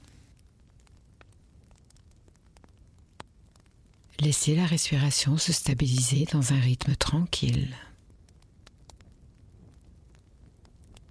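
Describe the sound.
A wood fire crackles quietly throughout with scattered soft pops and snaps, while a calm voice speaks briefly over it in the middle.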